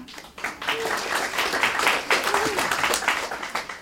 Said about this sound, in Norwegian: Eh, Skjalg Fjellheim, politisk redaktør i Nordlys. Applaus for det.